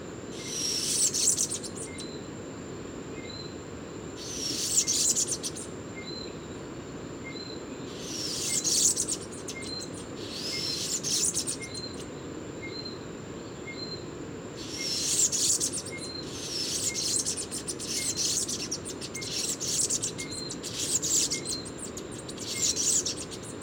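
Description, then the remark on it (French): A bananaquit sings short, high, wheezy buzzing phrases, repeated every few seconds over a steady, thin background hum. No one speaks. “Rencontre avec le sucrier à ventre jaune.”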